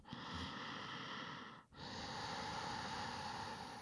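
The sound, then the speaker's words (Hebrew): Two long, loud, raspy breaths drawn slowly through the nose in a yogic breathing exercise, making a sound like deep sleep, with a brief pause between them and no talking. “אמ, אז קחו רגע, תראו שאתם מצליחים לייצר מין קול כזה של שינה עמוקה.”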